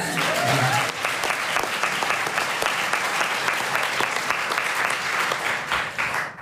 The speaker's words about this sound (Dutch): Eh, en we gaan, eh, ja, nog nog één keer applaus. Nog even.